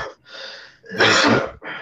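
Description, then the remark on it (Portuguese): A loud cough bursts out, framed by harsh breathy gasps before and after, with no talking in the short clip. “Infelizmente a tosse, cara, é um trem que eu não consigo controlar, né?”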